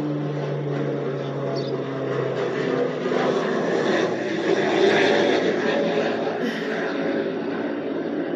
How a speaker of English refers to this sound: One moment, y'all. More planes.